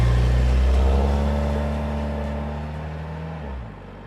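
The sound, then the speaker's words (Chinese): A school bus engine drones with a deep, steady rumble as the bus pulls away from the stop, slowly fading, with a brief shift in engine pitch near the end. “而正当他跑到校车站牌的时候，没想到校车竟然开走了。”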